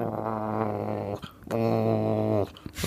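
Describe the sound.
A voice imitates a cat's growl in two long, loud rumbling bursts of about a second each, separated by a brief pause, followed by a short breathy sound at the end.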